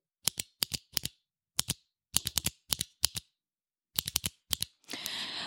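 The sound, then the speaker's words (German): Crisp clicks from a clicky keyboard switch with the maker's own self-built click mechanism, recorded with a fairly cheap microphone, tapped in short rhythmic groups that spell out SOS in Morse code, followed by a brief burst of rustling noise. No one speaks. “Das war äh, SOS gemorst.”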